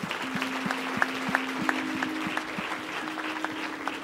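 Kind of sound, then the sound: crowd, audience applauding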